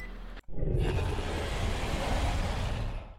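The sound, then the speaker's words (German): A loud, sustained tiger roar with a deep rumbling low end, starting abruptly after a brief silence and holding steady for about three seconds before cutting off. “Warum ist hier jetzt ein Drecks-Tiger, Brudi?”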